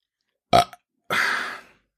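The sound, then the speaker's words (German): A short, loud burp erupts with a brief tail, followed a moment later by a longer, breathy rasp that fades out, with no talking. “Oh, ich muss halt aber auch aufstoßen, Moment.”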